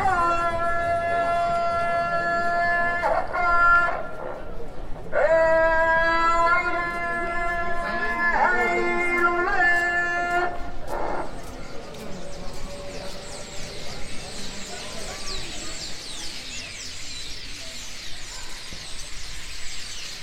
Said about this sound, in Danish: Det her træ er øh, byens fugletræ, og det er ikke falske lyde, det her. Det er simpelthen et træ, der er fuldstændig proppet med fugle. Og det står så lige ude foran vinduerne fra et hotel, som i sagens natur har svært ved at få gæster.